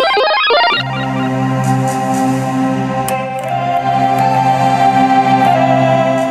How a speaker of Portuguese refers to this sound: O stylophone é um sintetizador monofônico portátil e possui um som muito peculiar. Uma caneta, chamada stylo tem uma ponta metálica e, ao tocar a placa metálica disposta na parte frontal do instrumento, funciona como as teclas de um piano ou teclado